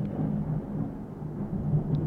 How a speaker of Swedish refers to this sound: Åh oh, jävlar, nu åskar det här